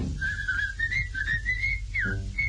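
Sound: human whistling a melody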